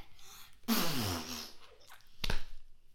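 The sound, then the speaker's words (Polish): Someone blows a loud imitation of a very loud ordinary fart: a long, wet, blubbery raspberry that trails off, followed by a brief second sputter a moment later. “Nie, proszek pierdzioszek to jest zwykłe, bardzo głośne pierdnięcie.”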